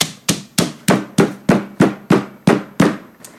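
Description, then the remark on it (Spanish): Someone locked inside a basement bangs on the door with a steady run of about eleven loud, heavy knocks, each striking sharply and trailing off in a short resonant ring, with no voices. “no perdió la esperanza de poder salir y se puso a golpear la puerta.”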